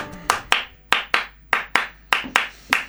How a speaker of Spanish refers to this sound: Encima estoy sin corpiña y me duelen las tetas, pero no lo puedo hacer más fuerte y no puedo hacerlo todo el tiempo. Por favor, los aplausos que mandan.